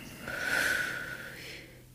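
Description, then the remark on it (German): A single deep breath: a long, airy draw in that swells and then eases into a softer breath out, with no talking around it. “es am besten, wenn man vielleicht seitlich die Hände mal an den Brustkorb legt und tief einatmet und wieder ausatmet.”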